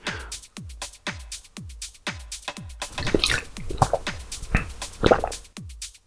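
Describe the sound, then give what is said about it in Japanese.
Rapid, wet gulping swallows repeating in a steady string of soft clicks and glugs over several seconds, with no talking, as someone drinks from a 2-litre bottle of Sokenbicha tea, trying to make loud gulping sounds. “鳴ってる え、ごくりごくりってどうやって鳴らすのちょっとやってみたい。”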